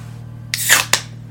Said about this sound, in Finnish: Oho, majava aivastus.